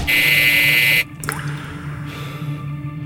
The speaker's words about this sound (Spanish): Toco el timbre. Con fuerza.